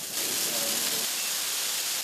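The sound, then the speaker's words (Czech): A burning Christmas tree in a firefighters' fire test roars with fire, a dense, steady rushing hiss that stays loud and unbroken for the whole couple of seconds, with no voices; the flames reach the ceiling 17 seconds after the first lower branch caught. “17 sekund poté, co chytla první spodní větev, jsou plameny až u stropu.”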